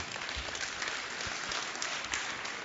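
An audience applauds steadily, a dense wash of many hands clapping at a moderate level with no clear individual rhythm, continuing throughout without speech.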